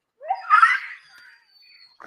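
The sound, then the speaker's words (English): A single short, high-pitched scream rises sharply and fades within about a second, loud, followed by a faint trailing tone and quiet background. “What's wrong? Why are you screaming?”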